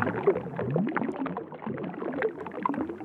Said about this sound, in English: very watery, bubbly, um, sounds like a jacuzzi or sound when you put your head under the water in the bath and there's water still running.